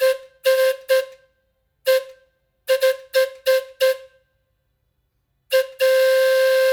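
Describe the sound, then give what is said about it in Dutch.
The original steam-style carousel whistle, blown by pulling a rope on its lever in time with the music, sounds in a series of short, loud toots, several in quick rhythmic bursts with pauses, ending in one long sustained blast. Its tone is bright and harmonic, like a chord. “We moeten de originele fluit hebben en uh, liefst in de maat van de muziek.”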